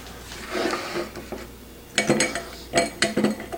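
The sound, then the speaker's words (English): A few hard clinks as three large ice cubes from an ice cube tray drop into a glass, starting around two seconds with three or four bright knocks in quick succession, after a softer rustling handling sound. “Pop them in the glass.”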